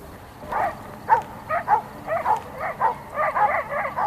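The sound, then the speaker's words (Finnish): Several dogs bark in a rapid, overlapping series of short yaps, fairly loud, with no talking, on the United States side of a border. “Koirat alkavat haukkua Yhdysvaltain puolella rajaa.”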